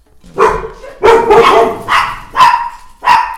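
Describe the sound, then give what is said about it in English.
A dog barks five times in a steady, evenly spaced series, each bark loud and sharp, with short quiet gaps between them and no talking. “And that's the dog's way of welcoming you to another episode of Sana Sana.”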